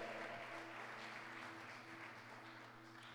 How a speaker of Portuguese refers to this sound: Se você crê nisso, isso, aplauda o Senhor e dê glória a Deus agora.